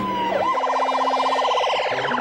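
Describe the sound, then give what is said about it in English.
An ambulance siren sweeps up once, then breaks into a rapid, continuous warbling yelp, loud, with a steady low drone underneath. “We'll need an ambulance. Please hurry.”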